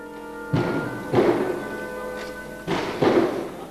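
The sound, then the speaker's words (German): Four heavy thuds of doors banging shut as audience members walk out of a concert hall in Israel, coming in two pairs with short reverberant tails, over a steady low hum. No one speaks. “Einige Zuhörer verlassen Türen knallend den Saal,”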